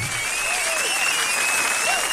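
A burst of audience applause, dense steady clapping from many hands holding at an even level throughout, with a faint thin tone running underneath.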